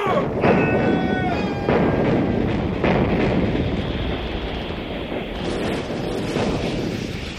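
A ship's cannons fire a broadside at another ship during a storm with lightning and pouring rain: heavy booms go off every second or so, one after another, over a constant roar of wind and crashing sea.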